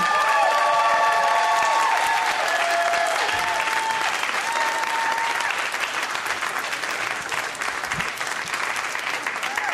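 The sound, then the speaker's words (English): Loud, sustained applause from a comedy show audience welcoming comedian Rhea Butcher to the stage, with whoops and cheers rising over the steady clapping early on before it settles into dense, continuous clapping. “Guys, give it up for Rhea.”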